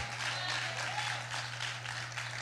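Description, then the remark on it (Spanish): An audience applauding, a steady, dense wash of many hands clapping at once, sustained and even in loudness for a couple of seconds, with a low constant hum underneath and no talking. “Yo creo que alguien está aplaudiendo mejor en línea.”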